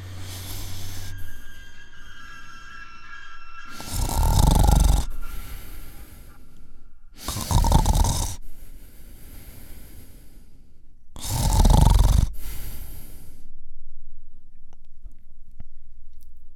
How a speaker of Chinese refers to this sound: 也许是因为太累了的原因，没多大一会儿，呼噜声便响了起来。